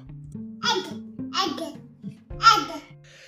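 A baby babbles in a recorded voice message sent via Telegram, in three short bursts of bright, high-pitched vocal sounds separated by brief pauses, over a low steady hum, with a faint gurgly quality.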